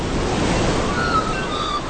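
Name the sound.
sea waves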